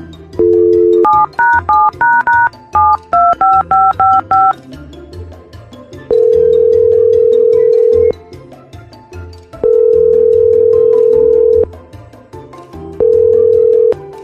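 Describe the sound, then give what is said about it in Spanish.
A rapid string of about a dozen keypad dialing beeps at varied pitches, followed by three long, steady ringing tones of about two seconds each, separated by pauses, as a phone call is placed to a pizza restaurant, La Pata de Perro Bar Grill. No voices. “Ok, vamos a marcar.”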